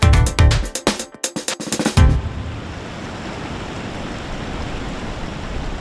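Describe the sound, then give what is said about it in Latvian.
A few quick, rhythmic bursts give way to the steady, unbroken roar of Pēntas rumba, the widest waterfall in Europe, its rushing water filling the scene with dense, even noise for several seconds. “Pēntas rumba ir platākais ūdenskritums Eiropā, bet cilvēks uz šejienes doties atkal un atkal vilina maģiskais skats pavasarī.”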